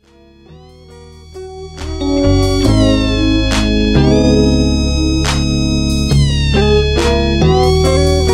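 Loud, repeated cat meows with rising and falling pitch, layered over a heavy bass beat with sharp percussive hits. There is no talking.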